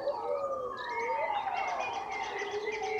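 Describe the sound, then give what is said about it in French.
A pack of wolves in a forest howls together from the treetops in a long chorus at nightfall, their overlapping wails rising and falling in pitch throughout, steady and fairly strong, with no talking. “D'autres hurlements s'élèvent des cimes.”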